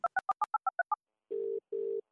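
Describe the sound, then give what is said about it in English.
A phone's eight quick two-tone keypad beeps in a rapid run as someone dials to make a call, then two long, steady, low buzzing telephone tones separated by a short pause. No one speaks. “i gotta make a call”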